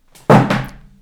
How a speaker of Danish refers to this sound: Bum. Det var bare min telefon.